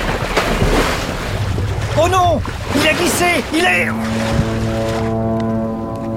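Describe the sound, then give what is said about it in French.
Loud waves crash and churn in a continuous wash of surf against a rocking iceberg, breaking over a seal, while a voice speaks excitedly over them; toward the end a steady droning tone rises beneath the water noise. “Les vagues se fracassent sans arrêt sur le phoque.”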